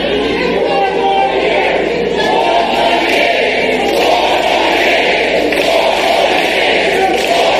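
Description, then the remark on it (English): A large crowd at a Biden rally chants "four more years" together in unison in response to protesters' "ceasefire now" chant, a dense, loud wall of voices that carries steadily without a break, like a packed rally roaring a repeated slogan. “Okay, that's incredibly cringe in response to the ceasefire now chanting, the majority of the crowd started chanting four more years.”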